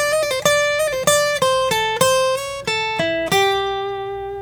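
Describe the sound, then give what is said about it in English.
A short bluesy lick on acoustic guitar over an A, played with the first finger at the eighth fret of the second string: about a dozen crisp plucked notes stepping mostly downward in a loose, straight rhythm, clear, ending on a longer ringing note, the dominant seventh, with no talking. “heading over here to the eighth fret of the second string with my first finger”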